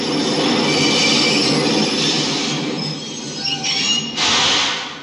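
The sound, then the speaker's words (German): A subway train rumbles along, its wheels squealing steadily over a dense, continuous roar that swells with a sharp metallic screech near the end. “Also so U-Bahn-Bilder sieht man, man sieht Bilder von, von Menschen und es hört sich auch sogar relativ gleich an.”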